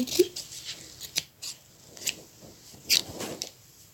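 Scissors snip through fabric for making curtains, in a series of crisp cuts, several short sharp strokes spaced irregularly over a few seconds with no talking.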